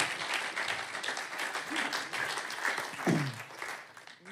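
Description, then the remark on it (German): A crowd applauds steadily throughout after a spoken blessing, a dense wash of many hands clapping, with a brief voice or cheer rising faintly near the end. “Ja, ja ihr dürft gerne applaudieren.”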